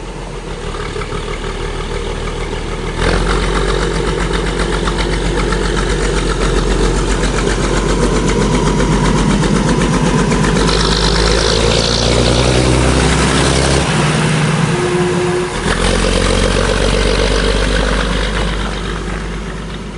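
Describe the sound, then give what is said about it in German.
The engine of a MAN-built DB 795 railbus, a vehicle between a bus and a suburban train, roars loudly. It drops briefly as the driver shifts gears, then revs up again as he accelerates. A steady mechanical rumble and vibration run throughout, with no talking. “Denn man kann den Fahrer sogar schalten und Gas geben hören. Das klingt dann so.”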